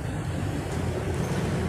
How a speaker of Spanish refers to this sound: ¿qué sucede? Nada. Nada, ahí se sigue tirando y se sigue tirando lo que es el agua